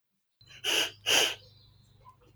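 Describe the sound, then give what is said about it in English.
A child's voice imitates a bison snort with two short, forceful, breathy bursts in quick succession, fairly loud, over a faint low background hum. “Bus- bison will snort and grunt.”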